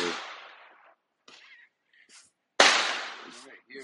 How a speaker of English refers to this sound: It's literally my neighbors are busting the fireworks right now. Activity that they do. This is exciting to them.